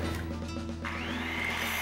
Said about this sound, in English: Well, once again, Edgar Martinez is using Eagle Hardware's incredible selection of brand name power tools for its latest project. And uh, here's a surprise. Uh, for once, it's not a bat. Oh, it is a bat. It's a light bat.